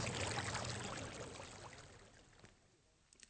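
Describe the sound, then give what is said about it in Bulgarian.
Water runs steadily from the Elisenbrunnen, a public drinking fountain from 1827 whose water can be drunk, in a continuous splashing stream that gradually softens and thins out toward the end, with no one speaking. “Водата на тази специална чешма, наричана Елизен Брунен, може да се пие.”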